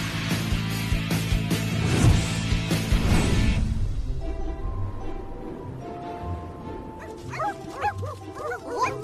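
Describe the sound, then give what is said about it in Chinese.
A small dog barks and yips excitedly in quick, high-pitched bursts that rise and fall, following a stretch of loud, rumbling noise at the start. “好吧，小狗狗，镇静一点儿。”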